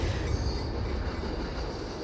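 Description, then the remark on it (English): A train rumbles steadily along the rails, loud, with dense low-end roar and faint metallic wheel noise throughout, no voices present. “The airplanes start to, to roar in, the trains start to run, the construction starts, and then it gets really loud.”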